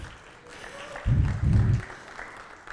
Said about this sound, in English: Yeah, you can give him a clap, go for it.